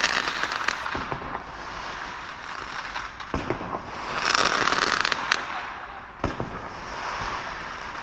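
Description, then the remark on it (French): Fireworks crackle and fizz continuously, punctuated by a handful of sharper bangs scattered across the display, with no voices present. “En fait, euh, ça me, ça me dérange pas et euh, euh, ça j'aime plus quand ça fait des feux d'artifice.”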